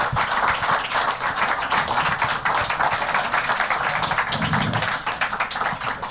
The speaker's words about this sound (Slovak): A predovšetkým vám všetkým, ktorí ste dnes do KC Dunaj za nami prišli, vám, ktorí ste nás sledovali a ešte vás poprosím, aby ste mi pomohli potleskom poďakovať našim dnešným hostom. Ďakujeme, že ste prišli.